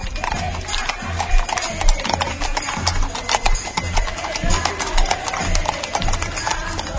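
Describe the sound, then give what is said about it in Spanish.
Hooves of riders' horses at a romería pilgrimage clip-clop steadily on a hard surface, a brisk repeating rhythm of sharp knocks over a busy, noisy outdoor background with no talking. “Aquí sí hay caballo, escuchemos esos cascos.”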